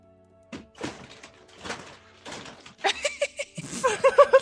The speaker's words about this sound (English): and then when a raccoon pushes through the door and knocks a bunch of crap over.